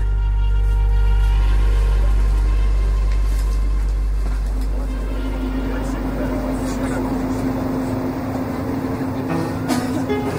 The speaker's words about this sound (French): Oui, ça se dé... on se déplace tellement bien en métro.